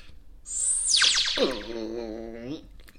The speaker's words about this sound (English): And you know what you get? You get a laser.